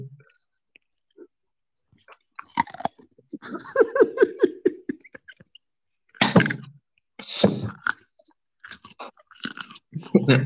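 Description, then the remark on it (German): A loud, crunchy bite into crisp food, followed by several more sharp crunches and chewing sounds, with soft whispering in between. “Ich glaube, der erste, der erste Biss könnte dann eventuell den Pegel ganz schön in die Höhe getrieben haben, weil es hat echt laut geknackt.”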